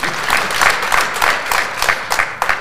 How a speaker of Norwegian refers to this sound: det var veldig bra at dere klappet nå, for vi vet ikke hvor morsomt dette blir. Så det er fint at dere starter godt.